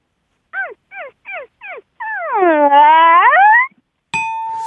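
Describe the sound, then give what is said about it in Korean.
A voice imitates a dog yawning: four short squeaky yips, then one long, drawn-out whining groan that dips and rises before cutting off. A bright bell-like ding rings right after. “자 강아지 하품 들어보겠습니다.”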